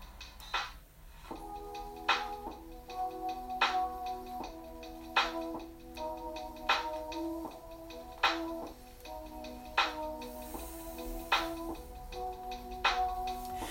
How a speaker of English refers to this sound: Okay, get that little drumstick going in the back. Ooh.